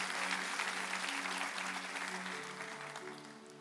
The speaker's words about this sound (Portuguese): A gente pode aplaudir também a Jesus mais uma vez.